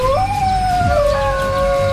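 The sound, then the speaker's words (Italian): A dingo howls in one long, sustained note that rises quickly, then slowly sinks and holds steady. It is fairly loud and clear, with no talking, over a low background rumble. “pensate un po', lo stronzo ha compromesso nuovamente eh, l'ecosistema eh sì. con i dingo.”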